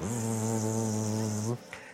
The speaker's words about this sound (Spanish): Un murmullo de enojo se elevó de las abejas trabajadoras